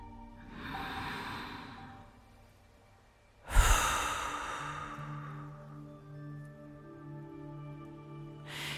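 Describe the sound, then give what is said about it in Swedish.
A slow, deep breath drawn in through the nose, then a louder, drawn-out sigh of an exhale through the mouth, over a soft, steady background tone, as a person breathes deeply to relax. “Och ta ett djupt andetag in genom näsan och ut genom munnen.”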